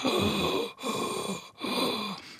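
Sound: imitated labored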